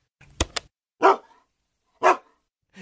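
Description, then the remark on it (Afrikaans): A dog barks twice, about a second apart, each bark short, after a couple of quick sharp clicks at the start. No one speaks. “'n Hond blaf.”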